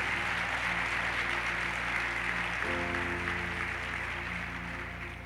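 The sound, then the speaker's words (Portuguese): An audience claps in a dense, steady wash of applause that holds for several seconds, with low sustained musical tones underneath that shift pitch partway through. “Você pode dar uma salva de palmas para ele?”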